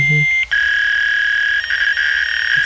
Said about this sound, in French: Pour ceux qui savent pas c'est quoi les fax, on peut peut-être juste mettre un petit bruit, là, ça va vous rappeler quelque chose.